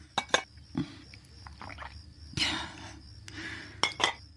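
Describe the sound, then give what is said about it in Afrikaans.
Sharp clinks of a cup and spoon, a pair near the start and another pair near the end, with brief rushing, pouring-like noises in between as boiled water from a thermos flask is poured over a teabag to make tea at night. No one speaks. “ek maak sommer tee met kookwater uit die warm fles in 'n teesakkie.”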